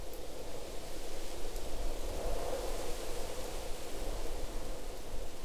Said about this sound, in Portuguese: Para isso, eu começo a pensar em sons que existem em um parque pela manhã. Então vou elencar e ir adicionando eles aqui: vento, farfalhar de grama e árvore por causa do vento,